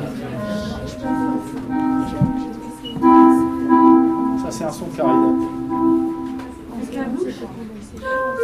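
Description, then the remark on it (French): A clarinet plays a slow melody of sustained, steady notes that shift in pitch every second or two, with a voice talking briefly over the music. “Euh, ça joue quel bruit la clarinette La clarinette, ça joue quel bruit Eh ben, ça ressemble un peu à ça, tu vois, regarde.”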